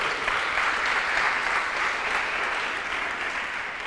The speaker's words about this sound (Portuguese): Dá um aplauso aí, pelo amor de Deus.